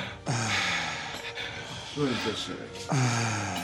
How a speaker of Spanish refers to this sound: Cerrando los ojos y aflojando la cabeza, aflojando el cuello, soltando y siga respirando fuerte. Suéltese. Jale el aire y siga respirando. Cierre los ojos, chino, Fuerte la respiración, cabeza floja, flojito, excelente.